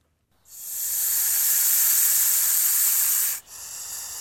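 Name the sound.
snake hissing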